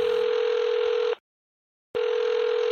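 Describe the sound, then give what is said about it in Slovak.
A telephone ringback tone on the line after a number is dialed: a steady, buzzy tone sounds for about a second, falls silent briefly, then starts again, heard alone and fairly loud as if through a handset. “okamžite vytáča ďalšie číslo.”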